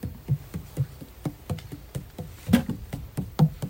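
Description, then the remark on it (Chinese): Roughly ten sharp, hard taps on a camera body in a fairly steady, slightly uneven rhythm, each a short dry knock at moderate volume, with no voices. “我是打到那个我的那个相机，有没有不一样声音？”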